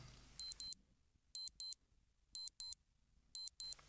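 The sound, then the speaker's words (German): An alarm clock, sold as waking gently and letting a partner keep sleeping, beeps in pairs of short, high electronic tones, four double-beeps spaced about a second apart, very soft and alone with no talking. “Mich weckt er zum Beispiel nicht, weil das Piepsen, wir können es uns ja gerade mal anhören.”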